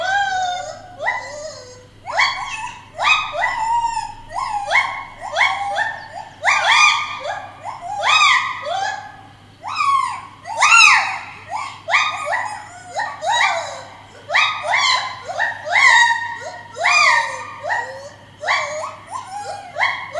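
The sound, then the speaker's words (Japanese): A mated animal pair's duet call: a long run of loud, whooping hoots that sweep up and down in pitch, repeating in a quick, steady rhythm with a howling, dog-like tone, and no talking. “歌ってますね歌ってますよね歌ってますねななんとなくこう声だけ聞くと、はい、こう犬がこうなんかこう遠吠えしてるみたいなそんなトーンで聞こえますけど”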